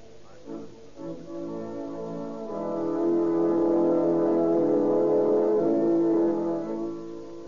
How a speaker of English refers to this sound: In a little white church in San Diego, the Reverend Herbert Wilson also hears the distant strains of patriotic music, feels the call to serve his fellow men at the front.